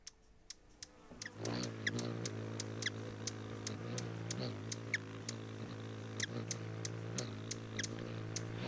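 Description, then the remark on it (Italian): Hummingbirds singing and calling: a steady buzzing hum of wingbeats sets in after a second, while sharp, high chirping calls tick in irregular clusters throughout, with no voices. “Come sottofondo oggi avete ascoltato il canto, il richiamo e il battito d'ali dei colibrì”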